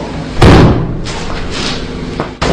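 A door slams hard with a loud, booming thud as someone enters, followed by a few fainter knocks and rattles, then another sharp bang at the end; no one speaks.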